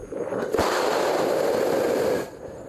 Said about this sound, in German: keine zwei Sekunden später schießt es als Dampffontäne nach oben und erschreckt die Umstehenden.